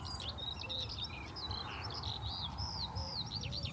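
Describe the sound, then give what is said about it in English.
A stonechat calls from the top of a hawthorn, with a skylark overhead, amid a busy stream of high, twittering bird notes, rapid chirps and short whistled phrases running continuously over a low, steady rumble of traffic carried on the breeze. “You can probably hear that stone chat just uh,”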